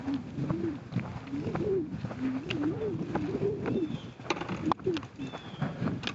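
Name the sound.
birds calling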